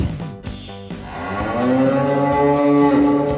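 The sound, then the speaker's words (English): A loud, drawn-out cartoon cow moo swells up after a brief jumble of sounds, its pitch bending as it holds to the end. No one speaks. “I liked it. The Big Moo.”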